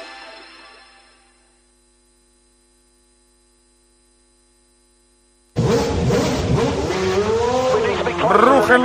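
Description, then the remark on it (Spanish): After a fading tone and several seconds of quiet electrical hum, Formula One racing car engines burst in loudly, their high-pitched roar rising and falling as they rev. “motores.”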